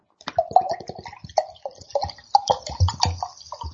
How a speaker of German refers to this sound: Oh, es plätschert hier schön in mein Glas. Gott, das ist ja wirklich schwarz wie die Nacht.